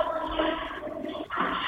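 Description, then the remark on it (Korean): Steady rushing water pours loudly, heard over a phone call from a construction site, the LH site in the Hanam Gamil district; a continuous hiss-like gush with a brief dip before it surges back. No voices are heard. “어, 어, 아, 물소리도 들리고, 지금.”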